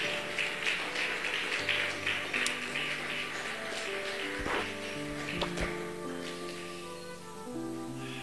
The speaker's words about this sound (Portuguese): Pode aplaudir o Senhor.